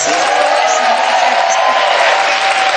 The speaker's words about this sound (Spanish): Este aplauso es para ti, ¿eh? Es un aplauso en la distancia.